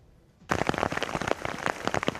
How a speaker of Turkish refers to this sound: İstanbul'da akşam saatlerinde bir anda başladı yağmur. Gecenin ilerleyen saatlerinde Anadolu yakasında artan yağış nedeniyle yer yer su birikintileri oluştu.